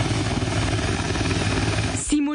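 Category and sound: vehicle, helicopter flying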